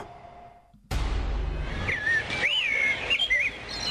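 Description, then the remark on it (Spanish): Birds chirp and warble in bright, rising and falling whistles over a broad outdoor hiss, several calls overlapping after a brief quiet start. “Bueno, eh, Andamos escuchando pajaritos porque nuestra historia sonora de hoy tiene que ver con cómo se encontraron esta, esta pues, pareja de amigos adultos mayores, una en Dinamarca, otro en Alemania”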